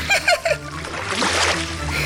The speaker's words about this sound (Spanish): A veces vamos al arroyo a jugar y los dos salpicamos agua de aquí para allá.